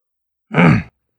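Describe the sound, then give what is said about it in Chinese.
A single short throat clearing in a told story, for a character clearing his throat after a sip of tea, a gruff voiced rasp lasting under half a second, moderately loud and alone with silence around it. “清清嗓子，”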